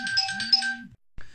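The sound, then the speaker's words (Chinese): A phone ringtone for an incoming call that comes in again plays an electronic melody with steady tonal notes and a bright, buzzy upper layer, cutting off after about a second before a brief second burst begins. “哎呀，抱歉，电话又打过来了啊！”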